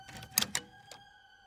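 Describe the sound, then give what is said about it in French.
A small cellar door is opened: two sharp latch clicks in quick succession, then a softer knock, all over a faint steady mechanical hum with no one speaking. “J'ouvre le local.”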